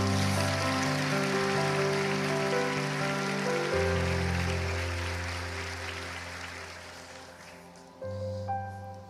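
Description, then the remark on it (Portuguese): An audience claps hard for Jesus in a steady, dense, rain-like patter over sustained keyboard chords, the applause slowly fading before the music shifts to a new chord near the end. “Bata um salmo de palmas para Jesus aí, bem forte.”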